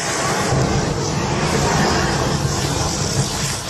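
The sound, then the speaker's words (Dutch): A phone battery burning with a half-metre jet of flame: a loud, steady roaring hiss that holds for several seconds with a rough, crackling low rumble underneath. “En zo klinkt een steekvlam van een halve meter als de batterijen vol slaat.”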